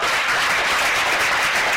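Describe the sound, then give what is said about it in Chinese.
A crowd applauds steadily, a dense wash of many hands clapping at once with no pauses, bright and even in loudness, and no voices are heard over it. “给你一个掌声，好不好？”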